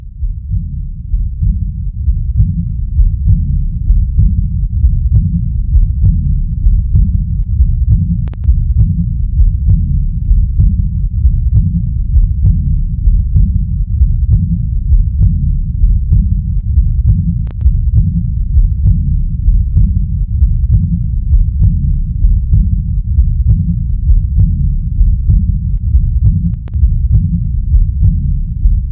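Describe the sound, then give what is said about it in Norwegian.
A diastolic heart murmur of aortic regurgitation (aortic insufficiency): steady, evenly spaced heartbeats with a soft, continuous low whooshing between them, heard through a stethoscope for the whole stretch, with no talking. “Det vi hørte nå, er en aortainsuffisiens.”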